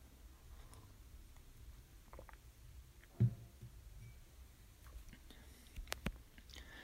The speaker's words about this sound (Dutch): Ik neem even een slokje water erbij.